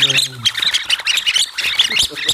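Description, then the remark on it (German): A busy chorus of high, squeaky chirps and tweets overlapping rapidly, like a flock of small birds chattering at once, made by rubber fingers fitted with whistles that move back and forth to push air through them; a brief low hum at the start. “Ja, ist ganz witzig, weil das ist, sind nur so Gummifinger mit so Pfeifen, die vor zurücklaufen halt.”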